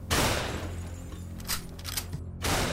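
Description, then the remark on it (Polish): A burst of gunfire aimed at a van opens loudly, followed by a few more scattered shots over the next couple of seconds, sharp, with no one speaking. “Właśnie w tym momencie rozległy się strzały.”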